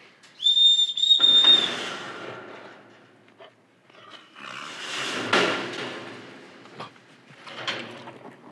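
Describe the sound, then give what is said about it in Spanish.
A person gives one short, high, steady whistle to call a captive animal, followed by louder scraping and rattling noises like a sliding door or metal gate moving. “Siempre tenés que silbarle para que no pierda la costumbre.”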